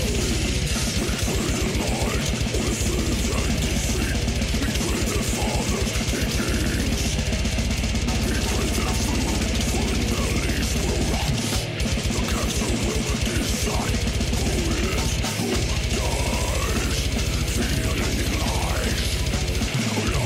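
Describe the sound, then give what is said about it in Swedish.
Extreme metal by a supergroup plays loud and constant for the whole stretch: a dense wall of distorted guitars with rapid-fire kick drum bursts and a muddy, blurting low end, a deliberately farty-sounding production. No one talks over it. “Det är alltså en supergrupp som har valt att ha ganska pruttigt ljud.”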